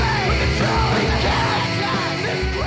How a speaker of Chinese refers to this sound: 没错，这个听起来更像 screamo 应该有的样子。